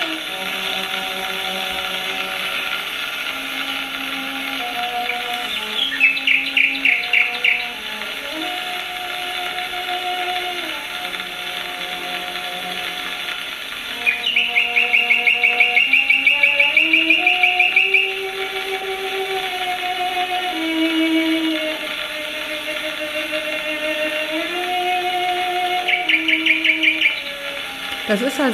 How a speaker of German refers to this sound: Boah. dieses Cello, mit dieser Nachtigall.